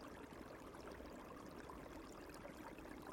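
A steady, continuous babble of water flowing in a stream, a dense rushing texture that stays even in loudness throughout with no voices present.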